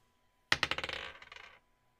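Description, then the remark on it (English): A die clatters onto a hard surface, bouncing in a quick run of sharp clicks that speed up and fade over about a second before settling. No one speaks. “I'm going to roll this die now.”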